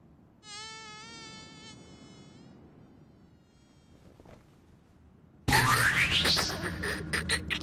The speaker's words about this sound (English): Damn mosquitoes.